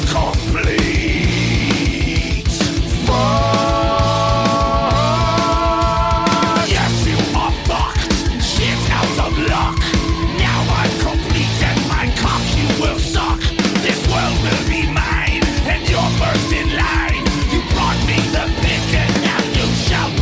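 A loud, dense rock song plays throughout, with driving drums, heavy bass and distorted guitars, and a sung vocal line rising above the full band.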